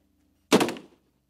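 A single heavy door slams shut with a sudden loud bang, followed by a short rattling, echoing decay that fades within half a second. Nothing else is heard before or after.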